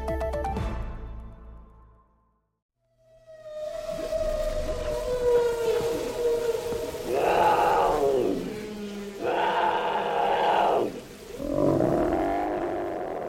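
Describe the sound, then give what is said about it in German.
A long, eerie whale call moans and glides at length, then three loud, rough roars from a leopard and a bear burst in one after another, forceful, with no talking. “Wale, Leoparden, Bären.”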